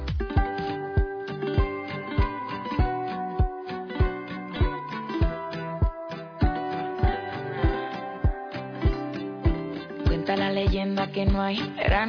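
A remixed pop song plays, driven by a steady, punchy kick drum under bright layered synths and melodic chords, loud and upfront with a lively dance groove.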